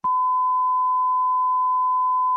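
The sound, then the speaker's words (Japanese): A steady, continuous censor bleep tone covering a name runs for about two seconds at an even, fairly loud level, with brief clicks of cut-off speech at its start and end. “いやいや、不教師の立場として名前を隠せっていうのは僕らのあれやろあのー、お、お、あの、ピピピ、ピピピピですけど”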